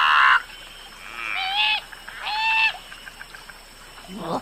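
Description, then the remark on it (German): Bird-of-paradise calls: a loud, raspy burst, then two drawn-out, harsh, nasal cries that swoop up and down in pitch, ending with a short, rough squawk. No one speaks. “Und da vernahm Gerdi das erste Mal seit einer Ewigkeit wieder das Rufen seiner Sippschaft, obwohl es wohl eher ein Brüllen war.”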